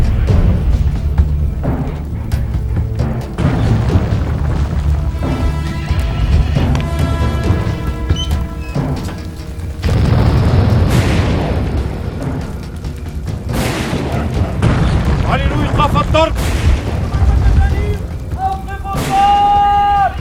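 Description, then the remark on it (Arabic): Heavy booming crashes of the sultan's mangonel catapult bombardment strike again and again, loud, amid a dense, chaotic mix of rumbling and ringing tones. “ترسل تحيات التقدير للسلطان صاحب الأخلاق السامية التي لا تساويها إلا شجاعته المشهودة وتهيب بشهامته أن يوقف ضرب المجانيق حتى ينتهي عرس ابنها”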